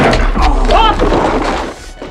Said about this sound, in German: Der Glatzkopf zögerte nur einen kurzen Moment. Dann griff er blitzschnell nach einem Stuhl und schleuderte ihn den Dreien entgegen.